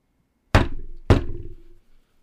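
Two loud, sharp knocks about half a second apart, each a hard thud with a short ringing decay, coming from inside a refrigerator. No voices.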